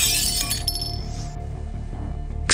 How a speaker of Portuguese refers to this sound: Puxou o esquálido homem deitado no chão mais para o centro da sala e chutou o jarrão contra a parede